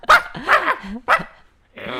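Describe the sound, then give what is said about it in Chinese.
A person imitates a small dog's yappy barking: three sharp, high-pitched barks in quick succession, followed by a brief pause and a shorter, whiny yip at the end. “你是想要学狗叫吗？”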